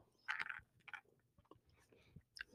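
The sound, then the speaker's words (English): Crunchy chewing of almonds, a few sharp bites followed by softer irregular munching, quiet with no talking. “Excuse me while I munch on these almonds for energy.”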